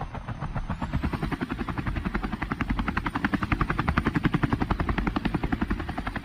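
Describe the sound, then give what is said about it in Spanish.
A helicopter lifting off, its loud rotor thumping in a steady rapid beat over a deep engine roar, with the chopping growing stronger and more insistent. No voices are heard. “ya puedes despegar.”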